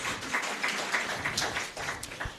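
An audience claps steadily for a couple of seconds, a dense patter of many hands blending into a continuous, fairly soft wash of applause with no voices over it.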